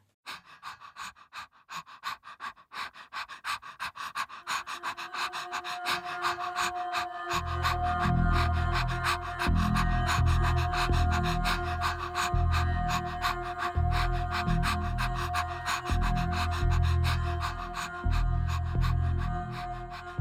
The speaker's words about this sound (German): Einfach nur, dass man noch mal einen Eindruck davon bekommt, wie sich da das Geräusch des Atmens und ja eben auch die Persönlichkeit, die das sich im Atmen ausdrückt, mit der Musik verbindet.